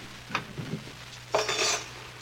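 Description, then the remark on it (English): Silverware clatters as it is gathered and put away: a short clink, then a longer jangling rattle of metal pieces, fairly loud, over a low steady hum. “now, let's put all the silverware away.”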